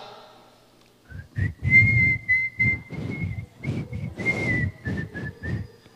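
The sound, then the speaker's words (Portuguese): A person whistles a short melody in praise of God, holding clear, steady notes that shift slightly in pitch, with a breathy low rumble beneath each phrase. “Assobia. Canta.”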